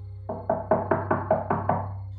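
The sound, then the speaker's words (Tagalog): Seven quick, evenly spaced knocks on a penthouse door at night ring out in a brisk rhythm, fairly loud, over a low steady hum with no voices. “Nagising na lamang ako dahil sa mga katok sa pintuan.”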